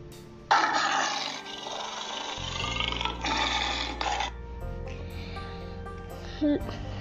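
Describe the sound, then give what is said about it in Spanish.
A lion roars in rage, a single loud, raspy, drawn-out growl lasting several seconds before fading, with a low sustained musical drone continuing underneath. “El león dio un rugido de rabia.”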